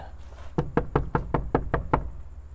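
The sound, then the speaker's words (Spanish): Eight quick, evenly spaced knocks on a door on Belisario Domínguez street during a paranormal investigation, fairly loud, rapping in a steady rhythm over a faint low hum, with no talking. “¿Toco?”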